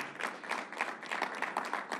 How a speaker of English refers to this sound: What's up, church? Clap it up. Come on, we can do better.